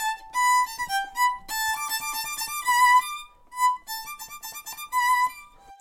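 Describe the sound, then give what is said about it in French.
A violin played with a heavy lead practice mute gives a thin, subdued, nasal tone through a short melodic phrase of sustained and quickly changing notes, heard alone without voices. “Regarde, ça fait comme ça avec la sourdine de plomb. Je vais te montrer.”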